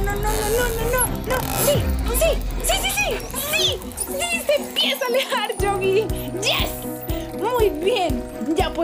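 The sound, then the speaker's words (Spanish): Rapid, loud dolphin clicking comes in dense bursts and crackling trains, mixed with rising and falling squeaky whistles that continue throughout. “Escucha eso. Es el sonido de los delfines.”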